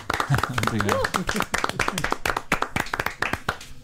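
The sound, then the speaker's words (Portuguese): Audience applause: a steady run of sharp, crisp claps sustained throughout, with a voice speaking over the opening second. “As nossas palmas.”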